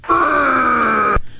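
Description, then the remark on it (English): A single loud, sustained monster groan from a Frankenstein sound effect button, low and guttural with a steady droning tone, lasting about a second before cutting off abruptly into silence. “So I have this uh, Frankenstein button here.”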